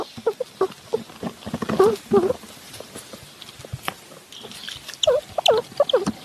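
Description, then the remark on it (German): A seven-week-old baby squirrel gnaws at a small nut close up, with a microphone held to it, making rapid irregular crunching clicks, broken by a few soft, high squeaks in the middle and near the end. “der hat ein Mikrofon an ein sieben Wochen altes äh, Baby-Eichhörnchen oh, gehalten, gesehen. während es eine Nuss frisst.”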